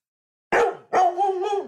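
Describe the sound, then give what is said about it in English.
A dog barks twice: a short, sharp bark, then a longer, drawn-out one with a slightly whining, wavering tone. No one speaks. “Woof, woof, woof.”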